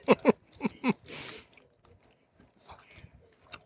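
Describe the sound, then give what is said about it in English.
Someone chews a big square, chunky, sticky salted caramel toffee taken whole in one bite: a quick run of loud, wet smacks and clicks, then softer, irregular chewing and mouth noises that fade off. “Yeah, I'm just—it's a big little square toffee-looking thing. I'm gonna take the whole thing.”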